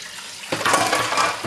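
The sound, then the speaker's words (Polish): Water is poured steadily out of a filter jug to show how pouring works, a bright splashing stream that starts abruptly after a brief quiet moment and continues without pause. “Teraz y, ja wyleję wodę z tego dzbanka, y, żeby pokazać, jak wygląda kwestia nalewania i w jaki sposób ja to robię.”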